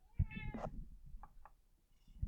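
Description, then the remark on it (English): A cat meows, a bright harmonic call followed by a couple of shorter, softer chirping meows, with low rustling and handling noise in the background and no talking. “We're leaving all the meows in. The meows are staying tonight.”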